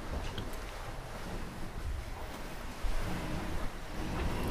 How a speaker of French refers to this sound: navigation, grincement des poulies, claquement de la voile